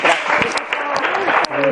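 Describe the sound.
Steady audience applause fills the whole clip, a dense wash of many hands clapping at a fairly loud, even level, with a voice briefly speaking over it near the end.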